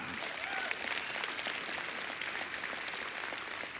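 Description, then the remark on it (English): A large church audience at Flatirons claps steadily, a dense, sustained wash of applause that stays loud and even throughout without pauses. “That's amazing. Give it up.”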